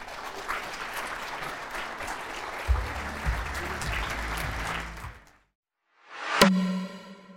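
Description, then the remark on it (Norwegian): A crowd applauds steadily for about five seconds, a dense, even wash of clapping that cuts off into a brief silence, followed by a short musical jingle with a bright struck note. “Men eh, gi dem en applaus.”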